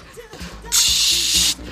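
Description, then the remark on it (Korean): A voice makes a sustained, bright hissing noise imitating meat sizzling on a grill, lasting under a second, with faint background music or murmur before and after. “야 이거 그렇게 굽는 게 어딨냐? 치, 치, 치, 이렇게 해야지. 고기 굽는 소리.”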